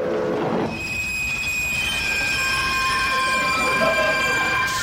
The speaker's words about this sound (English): As this train just pulled into the station.